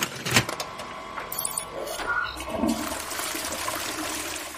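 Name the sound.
toilet flushing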